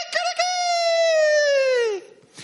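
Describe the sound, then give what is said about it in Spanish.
A rooster crows once, loud, a drawn-out call lasting about two seconds that sags in pitch at the end before cutting off into near silence. “Y a partir de ahí Pedro, cada vez que escuchaba al gallo, ya no lo relacionaba con la traición, sino que lo relacionaba con la comisión.”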